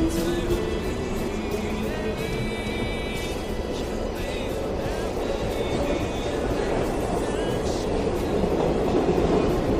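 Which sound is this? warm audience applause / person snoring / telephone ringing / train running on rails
train running on rails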